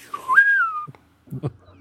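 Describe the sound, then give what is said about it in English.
A person whistles a short rising tone, a low note sliding up to a held higher pitch, mimicking a bosun's call, followed by a brief mumbled voice. “I can't whistle like I used to.”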